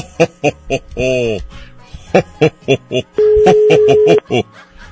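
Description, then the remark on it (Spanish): A single steady electronic ringback tone lasts about a second, loud, like a phone ringing on an outgoing call to a home phone number, with a person talking in short bursts before and after it. “Ahí está sonando.”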